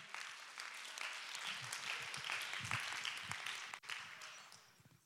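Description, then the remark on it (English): An audience claps hands in a dense, steady wash of applause, many overlapping sharp claps blending into a continuous roar, with a brief dip near the end before it carries on. “Oh, come on, somebody, clap your hand.”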